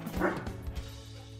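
A dog lets out one strong bark followed by a couple of quicker, shorter yips, with a low steady hum running underneath.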